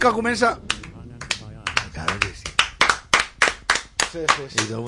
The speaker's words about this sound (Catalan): Y desde el fondo un aplaudimiento